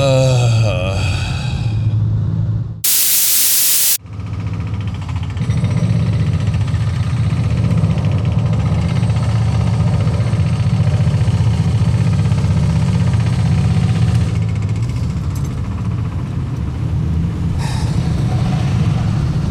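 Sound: car engine running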